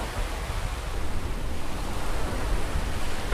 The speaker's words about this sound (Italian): Lo senti il mare? È una bella giornata.